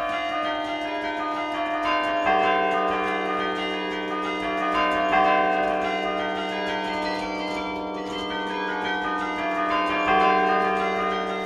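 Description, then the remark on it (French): Carillon bells, a percussion instrument owned by the town and played by striking with the fist, ring out a steady melody, their sustained tones overlapping and shifting every few seconds, fairly loud with no voices. “Vous tapez avec le poing euh, C'est assez doux euh, Comment ça fonctionne Le carillon, c'est un instrument à percussion, c'est-à-dire qu'il faut taper pour entendre le son.”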